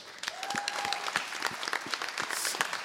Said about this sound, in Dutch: Eh, dames en heren, terwijl u plaatsneemt, we hebben ze net al even 10 minuten gehoord, maar mag ik een groot applaus voor de schoolband?